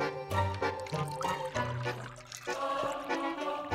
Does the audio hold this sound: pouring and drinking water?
yes